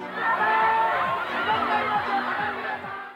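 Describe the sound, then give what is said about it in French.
A big crowd of fans of Leonardo DiCaprio cheering and shrieking nonstop in the streets of Tokyo in 1998, a dense wall of overlapping excited voices with high-pitched squeals rising out of it, loud and steady from start to finish. “Dans les rues de Tokyo, on dirait que Godzilla est là.”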